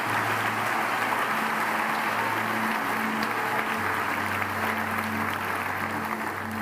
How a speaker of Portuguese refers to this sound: Alguém pode aplaudir ao Senhor por esta palavra nesta noite, em nome de Jesus?